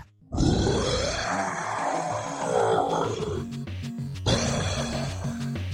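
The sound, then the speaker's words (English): A guard creature roars loudly, one long rumbling, snarling roar lasting a few seconds, then a brief pause before a second growling roar starts up. No one speaks. “If there was anyone in the five mile radius, they would have heard the guards roar.”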